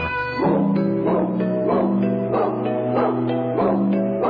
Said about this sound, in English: The dog sounds kind of evil.